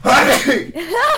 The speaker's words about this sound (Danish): Prosit. Prosit.